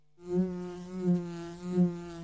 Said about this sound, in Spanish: No se asuste, que no pica. Es la abeja de Andes origen miel.